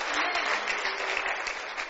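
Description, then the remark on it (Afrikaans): An audience claps for the Lord during a sermon in a dense, steady wash of applause, many hands blending into a continuous bright crackle that holds at an even loudness for the whole moment. “Kom aan, klap vir die Here.”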